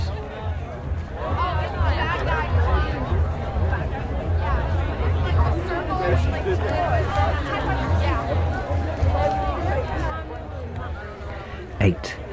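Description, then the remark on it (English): A dense crowd at a solstice gathering among the stones murmurs and chatters continuously, many overlapping voices of revelers, tourists, druids and Hare Krishnas, about 6,000 people, blending into a steady hubbub with no single speaker standing out, and a low rumble beneath throughout. “Inside, it's a crush of nationalities, revelers, tourists, people a little stoned, a little high, druids, Hare Krishnas, people seeking answers, feeling the spirit of the place, or just coming to be here among the stones.”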